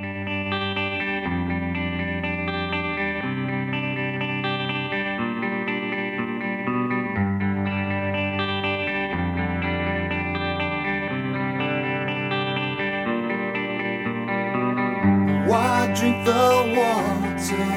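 A rock song plays with steady, sustained guitar chords over a low bass line, the sound thick and effects-laden; near the end a brighter, gritty guitar flourish rises above the mix.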